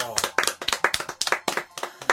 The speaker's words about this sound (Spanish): Muy bien, todos aplaudiendo.